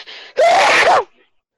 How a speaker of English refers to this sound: Bless you